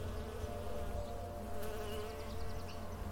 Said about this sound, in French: cette lumière, ces rayons de soleil, ces bruits, ces bruits d'ailes de petits insectes qui passent autour de vous.